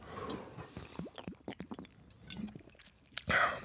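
Gulping and swallowing sounds as someone drinks mate straight from a bottle, a series of short wet gulps followed by a louder exhaled breath at the end.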